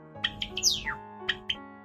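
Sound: java sparrow chirping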